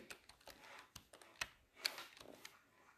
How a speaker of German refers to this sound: Die Tastatur. Gerade war es vielleicht ein bisschen lauter. Ich gerade meine Tastatur dagegen geknallt.